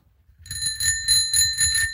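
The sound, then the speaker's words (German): A bicycle bell rings in a quick, repeated trill, its bright metallic tone sustained and shimmering, fairly loud, with no voices, in the workshop of a bike shop outside the town of Zofingen. “Das ist dann schon fast wie eine Kirchenglocke von Zofingen. Wir sind hier in einem Veloladen außerhalb des Städtchen Zofingen,”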